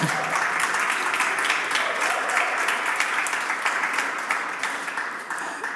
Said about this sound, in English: he got more applause than I did.